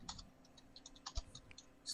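Someone types on a computer keyboard, a quick, irregular patter of soft key clicks with a slightly heavier tap midway. It's fairly quiet and close, with no voices.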